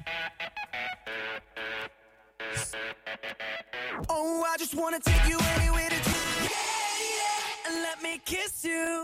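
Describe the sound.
An upbeat pop song plays over a broadcast, a lead voice singing over punchy, bright backing that swells and gets louder midway, filling the whole stretch without pause.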